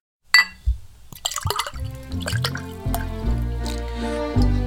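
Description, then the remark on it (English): Sherry pours into a glass, starting with a clink and splash, then a steady glugging stream whose pitch rises as the glass fills. No one speaks. “Well, the sounds of sherry being poured let us know that it's time to head back to the Christmas kitchen for Mrs.”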